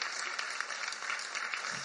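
An audience applauds steadily for an audience member's father, a dense, continuous wash of clapping that stays fairly even in loudness for the whole stretch, with no voices standing out.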